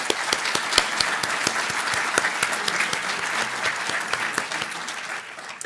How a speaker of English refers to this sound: And if we could, let's just give them a round of applause in honor of their parents.